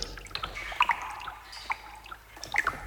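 Water drips inside a sea cave in Croatia, hollow and echoing, with a few distinct plinks scattered irregularly over a soft background wash of moving seawater. No voices.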